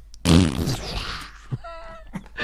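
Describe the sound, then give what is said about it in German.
A loud, buzzy fart noise blasts out for about a second, then fades into a thinner, squeaky whine with a couple of soft pops at the end. “das ist so ein Furz.”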